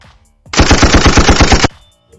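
A loud, rapid burst of automatic gunfire, about a dozen sharp shots in quick rhythmic succession lasting just over a second, with no talking.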